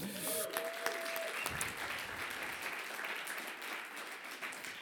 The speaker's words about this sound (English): Can I have a cheer for that?